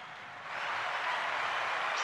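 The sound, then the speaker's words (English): A crowd cheers in a steady, hissing roar that swells slightly after the first half second and holds at a moderate level, with no individual voices standing out. “He, he brought the cheering crowd.”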